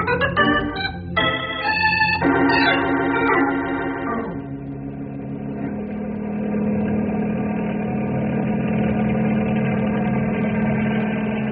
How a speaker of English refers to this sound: Using helicopter to mix warm ground air with cold night air, good idea.